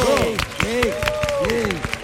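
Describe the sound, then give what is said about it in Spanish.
Steady clapping from a small group, with sharp overlapping hand claps running throughout, mixed with voices calling out over the applause. “Gracias a todos por estos maravilloso y merecidos aplausos.”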